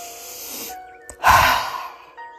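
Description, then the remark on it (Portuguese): A deep breath out through the mouth during a relaxation breathing exercise, emptying all the air from the lungs; a broad breathy whoosh that swells and slowly fades, preceded by a softer airy intake; fairly loud, with no talking. “e soltando todo o ar pela boca, sentindo realmente todo o peso, toda a tensão saindo também pela boca.”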